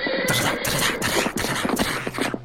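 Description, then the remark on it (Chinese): Horse hooves of an ornate horse-drawn carriage clatter in a quick, steady rhythm of sharp, loud knocks for about two and a half seconds as it pulls up and stops, with no voices over them. “只听一阵马蹄声响起，一辆华丽的马车停了下来”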